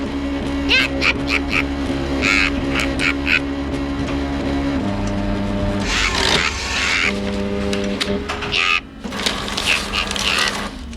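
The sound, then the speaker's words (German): A fax machine in a camper van starts on its own, holding steady electronic tones that shift pitch a few times, broken by bursts of harsh, buzzing, squawking noise as it prints a copy of a newspaper article, loud throughout. “Schon nach fünf Minuten sprang das Faxgerät im Campingwagen an und die Kopie eines Zeitungsartikels vom 8. Juni wurde ausgedruckt.”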